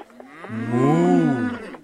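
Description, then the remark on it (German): A cow at a cattle market lets out one long, loud moo, its drawn-out low call swelling and then falling away, with no voices around it. “Das war kuisch und bedeutete ja.”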